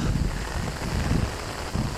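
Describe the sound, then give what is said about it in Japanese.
A heavy, sudden morning rain shower pours down in a dense, steady hiss across the whole clip, with a rumbling low roar underneath and no voices. “嫌がらせみたいにとんでもなく強い雨が降ってきました”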